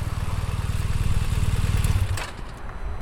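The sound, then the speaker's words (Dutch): A BMW 1200 motorcycle engine, a standard model ridden by a Rijkswaterstaat road inspector, rumbles steadily with a deep, throbbing low tone, then drops away after about two seconds with a brief airy whoosh. “Ik eh, rij op een BMW 1200.”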